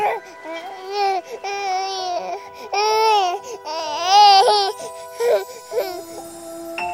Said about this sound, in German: Und da sie es auftat, sah sie das Kind. Und siehe, das Knäblein weinte.